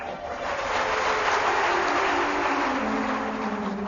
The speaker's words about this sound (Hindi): तालियां तो बजाते हो लेकिन आपको कब रंग लगेगा उसका इंतजार है